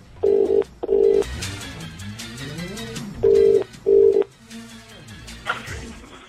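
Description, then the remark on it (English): A telephone ringback tone on an outgoing call to a randomly picked prize winner sounds two double rings, each a pair of short steady buzzing tones, with a pause and some faint background noise between the pairs. “When it rings, oh, it's ringing”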